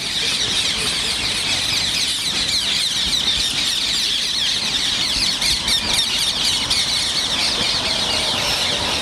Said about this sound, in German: Ja, und das sind eigentlich tropische oder subtropische Töne, denn originär kommt dieser Vogel aus dem Subsahara-Gebiet, also quer durch den afrikanischen Kontinent und in Indien lebend, im ersten einmal hier nicht vor, so ohne weiteres.